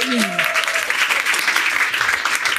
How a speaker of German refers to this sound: Großen Applaus für sie.